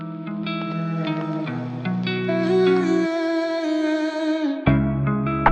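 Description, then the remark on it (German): A rap song's instrumental intro plays, with sustained melodic chords over a deep bass line that shift a few times, fairly loud and without any vocals yet. “Ich höre mal rein. Ich höre es mir mal an. Hier bei mir auf Platz 3 …, ….”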